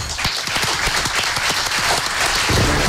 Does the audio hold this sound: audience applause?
yes